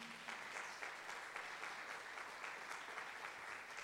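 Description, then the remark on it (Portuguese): An audience bursts into steady, sustained applause for Jesus, many hands clapping densely and evenly throughout with no voices standing out. “Pode dar uma salva de palmas a Jesus?”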